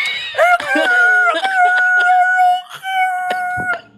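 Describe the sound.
A voice imitates a dial-up internet modem connecting, as people did in the 1990s: sustained, wavering high-pitched tones that glide and warble, broken by short hissy bursts and clicks, fairly loud for about four seconds.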